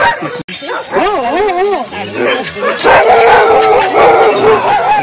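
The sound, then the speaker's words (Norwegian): A chorus of sled dogs howling and barking together, wavering howls rising over a dense, loud din of yips and barks from many animals. “Og så kjører vi hundene alle mann alle.”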